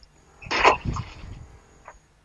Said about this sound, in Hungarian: Ezek összeverekedtek az oposszumok.